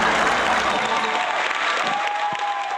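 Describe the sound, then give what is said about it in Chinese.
Steady, dense applause from a group welcoming a singer before a song, a continuous wash of clapping that holds an even loudness for a few seconds without any talking over it. “来， 好， 掌声欢迎，”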